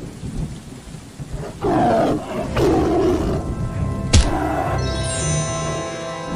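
Deep, rasping roars of a fierce tiger swell twice over steady rain and rumbling thunder, followed by a sharp crack and a lingering low rumble. Loud, with no one speaking.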